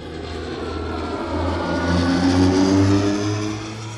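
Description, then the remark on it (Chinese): A small airplane's engine drones steadily as it takes off and flies in Australia with a student pilot on a first flight, a humming, buzzy tone that swells louder through the middle and then eases slightly, with no voices. “八月三十一号，在澳大利亚有一名学员啊，还第一次开飞机上天。”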